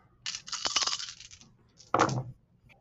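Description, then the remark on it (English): A handful of dice, rolled for a wits and sailing check in the 7th Sea role-playing game, clatters and rattles across a hard surface for about a second, followed by a shorter, sharper burst of tumbling clicks, with no talking. “7th Sea is an incredibly heavy RPG system, with the dice throwing being a little bit different uh, than any other system”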